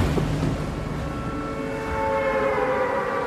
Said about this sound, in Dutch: Als je nu met een spelletje begint, dan word je in een, een, een groene omgeving gedropt met een hele hoop eh, andere spelers om je heen die allemaal maar tegen dingen aan het slaan zijn. Dat duurt een paar seconden en dan hoor je een soort toeter.